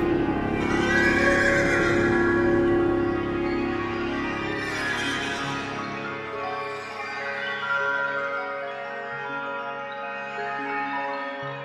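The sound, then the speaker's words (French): A horse neighs in a long, loud, drawn-out whinny with shaky wavering pitch that gradually settles lower, clear with no one speaking. “Et de la contrebasse jaillissait à chaque fois un cheval au galop.”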